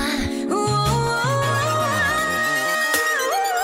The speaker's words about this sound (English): video game sounds now.